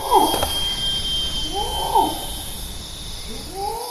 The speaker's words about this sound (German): Regenwaldstimmung auf Sumatra. Zikaden und die Rufe eines Orang-Utan-Mannes, sogenannte Long Calls, prägen die Klanglandschaft.